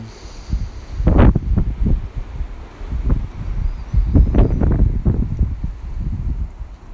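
Gusty wind blows outdoors, buffeting the microphone in uneven low rumbling surges that rise and fall over several seconds, with faint rustling in the background and no one speaking.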